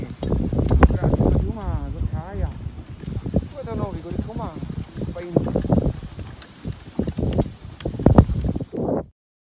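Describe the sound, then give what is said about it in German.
A dog sled glides and crunches over snow, with steady rustling and scraping from the runners, while a man's voice calls out to the sled dogs, praising them, and wind buffets in the background. “Also ich habe Schlittengeräusche gehört und er hat etwas gesagt.”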